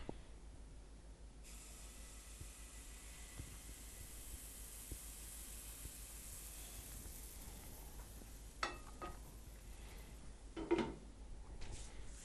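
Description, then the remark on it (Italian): Steady frying sizzle of creamy chestnut-flour pancake batter in a hot pan over low heat: a continuous soft hiss starting after a second, with a few small clinks and pops near the end, fairly quiet, no talking. “Pentola bella calda. Pentola calda.”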